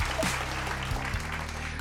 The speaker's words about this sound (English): Get, where, where's my applause?